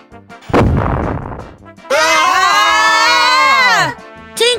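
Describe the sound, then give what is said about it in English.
A cannon fired by Hook booms with a heavy, decaying blast, followed by a long, shrill whistle that slowly falls in pitch, then a short, sharp burst at the end. “Hook is shooting a cannon!”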